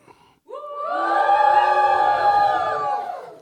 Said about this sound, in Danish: Vi har tænkt, at vi kunne afstemme uh, stemme ved uh, ikke klappen, men hujen. Mm. Så skal man ligesom give den lidt mere.